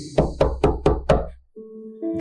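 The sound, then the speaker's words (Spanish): Five firm, evenly spaced, insistent knocks on a kitchen door ring out loud in quick succession in the early morning, then stop, followed by a brief pause and a low, steady tonal hum. “Se llegó la fecha marcada en aquella hoja y a primera hora de la mañana escuché golpear insistentemente en la puerta de la cocina”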